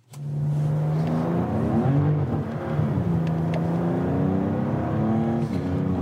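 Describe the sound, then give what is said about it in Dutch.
A BMW M4 CS sports car engine revs during a test drive, its deep growling note climbing and shifting in pitch as it accelerates, loud and continuous for several seconds with no one speaking. “de test aangaan met de M4 CS.”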